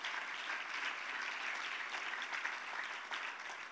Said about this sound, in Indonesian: Berikan tepuk tangan yang meriah bagi Tuhan Yesus.